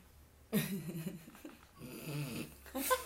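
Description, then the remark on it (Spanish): A man who has fallen back asleep snores, fairly loud: two long, rasping snores in succession, then a third beginning at the end, with short pauses between and no talking. “Y se vuelve a quedar dormido.”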